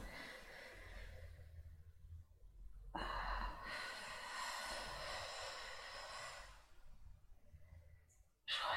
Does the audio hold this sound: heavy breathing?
yes